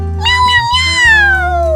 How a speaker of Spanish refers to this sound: Échale unos maullidos, ….